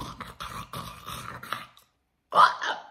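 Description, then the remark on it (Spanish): A person imitates dogs fighting, making rough, snarling growls for nearly two seconds, then a short pause before one more loud, harsh snarl bursts out. “O sea, no sé, o sea, como, como cuando los perros se pelean como...”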